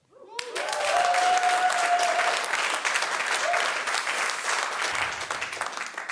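Loud, sustained applause from an audience at a comedian's television appearance bursts in suddenly and continues steadily for several seconds as a dense wash of clapping, with a brief whistle or cheer near the start.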